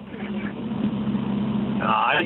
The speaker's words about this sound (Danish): Du, øh, du ringer ind fra Vøgen, så det lyder som om, du er ude og køre i en bil.